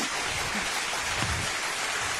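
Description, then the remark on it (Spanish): A crowd at an event gives a final round of applause for a person, steadily, a dense, even patter of many hands clapping at once that holds at a moderate level throughout, with no voices above it. “Por favor, producción, unos últimos aplausos”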